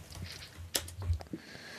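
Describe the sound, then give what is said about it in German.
A few soft, irregular keyboard clicks tapping, quiet against a faint low background hum, with no voices. “er tippt. Ich höre tippen.”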